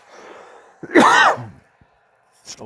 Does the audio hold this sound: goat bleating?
no